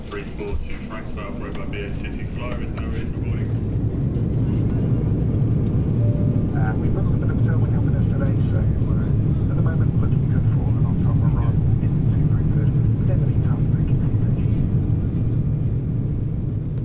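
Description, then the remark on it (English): Airplane engine noise on a flight to Mainz, Germany: a steady, loud, low roar that builds in the first few seconds and then drones on evenly, with faint indistinct voices murmuring underneath near the start. “I think it's time we got back to planes, and in my case, onto one.”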